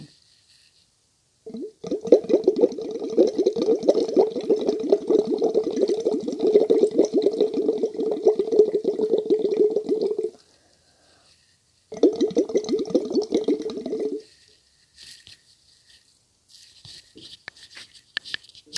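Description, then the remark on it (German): Steady bubbling as air is blown through a tube, held with the lips, into water during a vocal exercise: a long burst of about nine seconds, a pause, then a shorter burst, followed by faint trickling. “Man kann auch Vokale A, B, C, D, Dann gehe ich A, B, C, D, gehe ich mal in einen Blubber über.”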